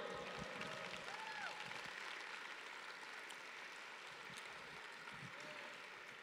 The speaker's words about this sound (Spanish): Oh, dale un fuerte aplauso al rey.